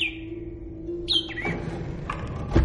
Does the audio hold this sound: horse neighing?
no